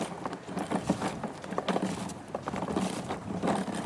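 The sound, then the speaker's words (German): A red plastic Bobby Car ride-on toy car rolls across a hard surface, its wheels producing a continuous rough, clattering rumble with irregular knocks and bumps throughout. “wir feiern heute 50 Jahre Bobby Car. Das rote, robuste und sehr laute Auto ist, ja, ich möchte schon sagen, der Horror vieler Eltern”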